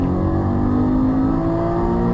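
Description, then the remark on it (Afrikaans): A Subaru-designed 2-litre boxer engine, rated at 147 kW and 205 Nm, revs steadily with a loud, sustained droning hum and layered harmonic tones. It holds a fairly constant pitch for a couple of seconds, with no voices. “So grom die 147 kW 205 Nm Subaru ontwerpte 2 liter bokser.”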